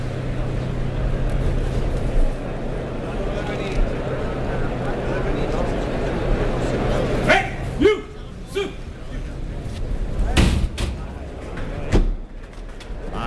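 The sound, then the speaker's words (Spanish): A bull bursts out through the toriles pen gate into a bullring: the third bull of the afternoon, for matador Pablo Aguado, number 174, named Tulipán, red-coated, 564 kilos, born January 2018. A steady crowd murmur and low hum, then sudden sharp bangs and thuds midway, followed by scattered shouts and brief loud knocks. “Ahí está, la puerta de Toriles, tercero de la tarde. Corinto y oro, el vestido que luce hoy Pablo Aguado. Vamos a oír la salida del toro.”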